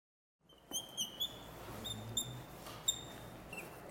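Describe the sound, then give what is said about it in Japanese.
Several short, high squeaky chirps from wooden bird calls, twisted in quick bursts that mimic birdsong, tried one after another at a workshop space in the Naguri area, each call sounding different, over a faint background hiss with no talking. “鳥じゃないんですよ いやこの今あのワークショップスペースにはバードコールたくさん置いてありますけれど今いろいろ試しましたけど一個一個音違うんですねそうですねやっぱりあの木も生き物ですので、あのまあ、その時のね切ったタイミングとかもありますあと目のね向きとかもあります、やっぱりあとは鳴らし方もあります”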